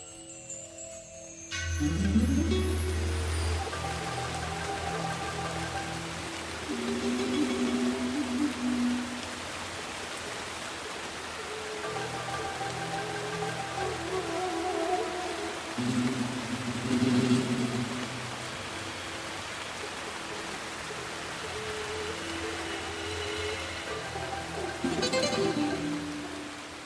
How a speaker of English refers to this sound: So the rain is easing off now, but boy, was that some rain. You never get rain like that in Ireland.